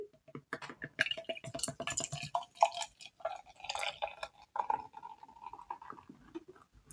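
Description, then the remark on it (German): New Zealand Island Pale Ale from True Brew of Munich splashes and gurgles as it is poured into a glass, a quick, irregular patter of bubbly drips and splashes with a brief rising, ringing tone near the end. No one speaks. “Doch, diesmal hat es ein bisschen geplätschert.”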